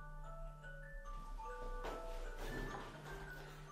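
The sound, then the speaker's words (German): An alarm clock ringing with a faint electronic melody of sustained tones stepping between pitches, over a steady low hum and some rustling noise midway. No one speaks. “Einer klingelt.”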